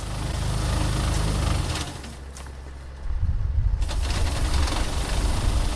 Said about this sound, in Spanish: ¿Qué es ese ruido? El ruido que escuchamos de fondo es el que proyecta un tractor eh, que lleva eh, lo que en el argot se conoce como paraguas.